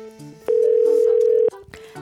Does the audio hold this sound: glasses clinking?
no